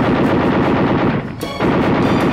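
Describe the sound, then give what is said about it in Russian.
A rapid, continuous rattle of machine gun fire from the gunner of an armored bomber firing at attacking German planes, loud and dense, with a brief lull midway before the bursts resume at full strength. No one speaks. “Атакуют наш бомбардировщик. Пулеметчику приготовиться! Огонь!”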